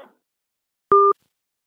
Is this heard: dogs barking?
no